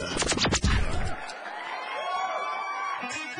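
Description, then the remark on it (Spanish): A crowd erupts with loud whoops and yells at first, then settles into a steady, sustained wash of applause and cheering that carries on evenly. “Recibamos con un fuerte aplauso el show del patrón.”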